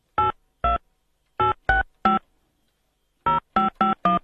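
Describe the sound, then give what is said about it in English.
A rapid series of telephone keypad tones as a number is dialed for a second attempt at a call, nine short beeps in uneven clusters of two, three and four, clear, with silence between groups. “sounds like uh, Dominic is not there. We're going to try it again for the second time”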